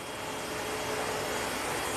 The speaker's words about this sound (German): Der Azubi bedient den Sammelhefter.